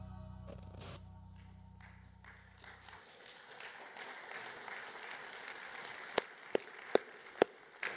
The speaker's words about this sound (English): worth clapping for.